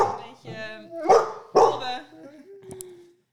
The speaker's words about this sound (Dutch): Er zit een hond tussen mijn benen. En, eh, een hele grote hond.